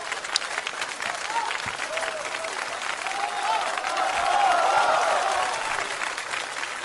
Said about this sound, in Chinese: 各位掌声揭晓啊！谢谢，谢谢各位。